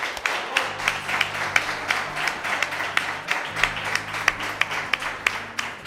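An audience applauds itself at the close of the day's programme in the capital of the Guadalhorce district, Andalusia, with many hands clapping in a dense, continuous patter, sharper individual claps standing out, and a low steady hum underneath throughout.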